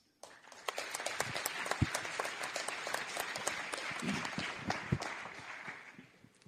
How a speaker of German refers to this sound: Und also ich fände, es ist eine große Geste, auch hier mit einem Applaus zu würdigen,